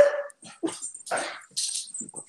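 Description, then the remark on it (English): A dog whimpers and whines in a handful of short, high, pleading bursts with brief pauses between them, no voices present. “And uh oh, was was my dog.”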